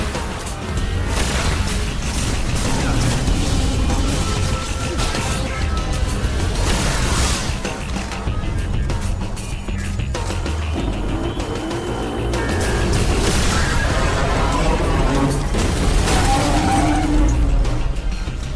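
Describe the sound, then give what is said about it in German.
Loud, dense barrage of sci-fi gunfire and booming explosions as several salvos are fired at an animated statue creature, destroying it, with sharp bursts and crashes repeating over a constant roaring wash of noise, intense throughout. “Mehrere Feuersalven auf das Wesen zerstörten es.”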